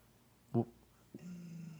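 A dog growls at a FedEx delivery driver, a low, steady rumble that starts about halfway through and holds to the end, preceded by a brief, sharp vocal burst.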